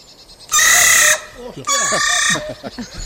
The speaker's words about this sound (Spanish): Y ahora empieza a hacer una serie de ruidos extraños. Esto sería la voz normal. Y ahora empieza a hacer una serie de ruidos raros que yo no se los he oído nunca, nada más que en este caso. Esto es una corneja cabreada.